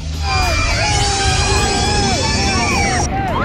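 A high, whining electric Formula E race car sweeps past at 200 km/h through a 30 km/h zone during the warm-up for the first Formula E race in Zurich, over a loud, roaring crowd, its tones gliding up and down like a sci-fi spacecraft, with a steady high-pitched whine cutting off near the end.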